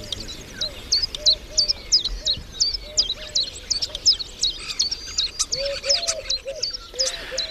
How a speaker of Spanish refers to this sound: Ah, una tórtola. Sí, una, tórtola turca, sí.